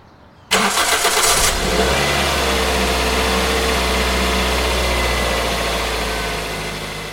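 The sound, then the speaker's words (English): A car engine cranks briefly after a moment of quiet, catches, and settles into a steady, loud rumble that runs on without any voices, as the car is started to take a dog to the vet. “I'm a nervous person and I didn't want to risk anything, so I scooped her up and got her into the car to take her to the vet.”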